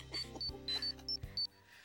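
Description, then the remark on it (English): An electronic alarm going off: a quick, slightly uneven series of six short, high-pitched beeps, moderately loud, sounding over a low, steady humming tone with no one talking. “Um, it was my alarm.”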